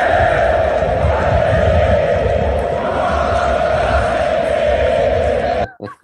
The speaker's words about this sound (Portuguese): na torcida, o seguinte grito: Arerê, o Borra vai jogar a Série B.